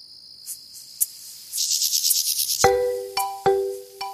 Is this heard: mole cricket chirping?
yes